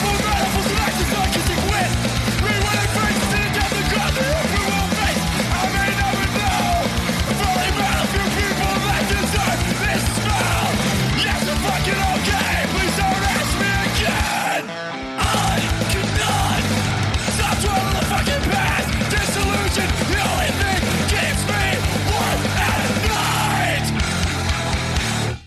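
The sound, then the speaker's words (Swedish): A short, loud, relentless hardcore punk song of about 27 seconds with shouted, yelled vocals over pounding drums and distorted guitars, dropping out for a split second midway before crashing back in. “Hardcore, ja det kan vi verkligen göra.”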